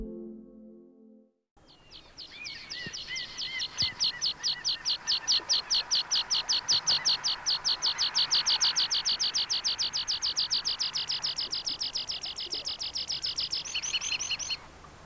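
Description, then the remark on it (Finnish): A rock pipit sings alone, a long, steady run of rapidly repeated, bright chirping notes that carries on for over ten seconds before ending abruptly. “Luotokirveset ovat todellisia ulkosaariston lintuja.”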